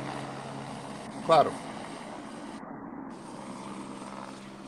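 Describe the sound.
A helicopter's steady, droning rotor rumble fills the background throughout, even in loudness, as the helicopter leaves after dropping off a patient, while a person briefly speaks a single word over it.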